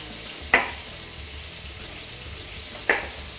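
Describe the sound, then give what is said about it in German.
Chicken searing in hot oil in a pan sizzles with a steady, bright crackling hiss throughout, broken by two sharp clicks or taps a couple of seconds apart. No one speaks. “In der Zeit, wo wir das Poulet anbraten, gehen wir ans Gemüse.”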